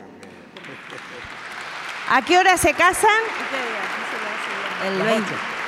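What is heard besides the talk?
audience applause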